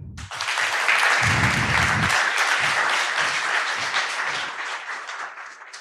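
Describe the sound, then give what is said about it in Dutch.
Sustained applause from a sizable audience welcoming a speaker on musical theatre, a dense steady wash of clapping that stays loud for several seconds with a few low thumps underneath, then eases slightly toward the end. “Een heel groot applaus.”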